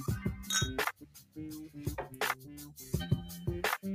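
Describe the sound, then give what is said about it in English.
Glass bottles clink together several times in quick succession in a toast, fairly loud, each knock leaving a short bright ring before the next. No one speaks. “And until next time, cheers, cheers fellas.”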